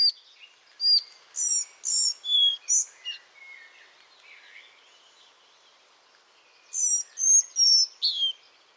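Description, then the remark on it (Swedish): A collared flycatcher sings two phrases of short, high, squeezed-sounding notes, a thin strained sputter between them, with a fainter twittering stretch in the middle and no voices. “Och någonting som aldrig upphör att fascinera det är det du var inne på med dess sång som är, det låter ju nästan som den pressar, klämmer fram det ansträngt”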